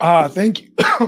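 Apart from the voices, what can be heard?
cough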